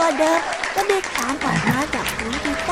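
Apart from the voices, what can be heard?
applause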